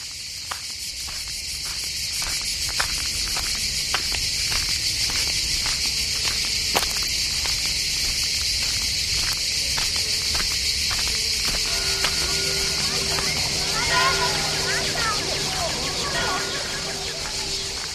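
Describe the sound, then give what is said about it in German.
A summer soundscape with steady cricket chirping over a broad wash of sea waves, a rhythmic pulsing of buzzing bees early on and sustained church bells ringing in later. “zirpende Grillen, Bienen, Kirchenglocken, fröhlich kreischende Kinder, Meeresrauschen.”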